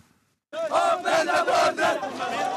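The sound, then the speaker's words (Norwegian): Desperate refugees in Greece at the border with Macedonia shout loudly together, calling to open the border, after a brief silence, many voices raised in a rhythmic, chant-like clamor that swells and dips over a couple of seconds. “Åpne opp grensa, ropte desperate flyktninger i Hellas denne veka på grensa til Makedonia og slike rop vil bare øke i styrke det kommende året”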